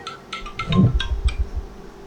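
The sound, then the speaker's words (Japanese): A phone rings or buzzes in quick, repeated electronic pulses at moderate volume, with low thumping handling noise underneath. No one speaks. “ちょっとすごいな、電話が。”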